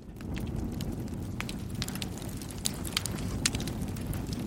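Crumpled, torn book pages burning in an agungi (traditional fire hole) with a steady low roar and a stream of sharp, irregular crackles and snaps, a few louder pops standing out toward the end; no voices.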